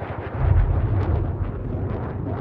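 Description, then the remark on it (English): Gunfire rumbles and echoes in a continuous, booming wash of low thuds from a battle in a city on the front line of the Somali civil war, with no voices present. “The sound of gunfire echoes through the air.”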